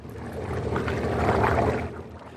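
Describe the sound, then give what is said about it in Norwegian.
A motorboat engine, started by turning a key, rumbles steadily, a low droning roar that swells slightly midway and then eases, with no voices, near Utøya, Norway. “skrur om nøkkelen i båten sin.”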